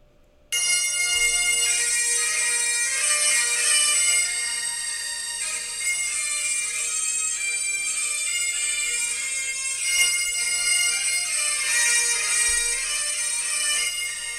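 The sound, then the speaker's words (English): Bagpipes, a Scottish instrument with three drones connected to a bag, play loudly and without pause, a bright, high-pitched reedy chanter melody riding over steady buzzing drones. The sound starts abruptly and holds at full volume throughout, with no voices. “And if you don't know what bagpipes are, they're a Scottish instrument with three drones connected to a bag, which has a, how do I put it, a loud, a high pitched flute.”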